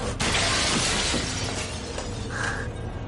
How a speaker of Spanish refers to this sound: Rompe la cristalera.